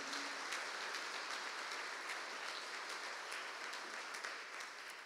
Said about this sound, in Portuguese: É quando nós chegamos, pode aplaudir a Cristo, irmãos. Aplauda a Cristo.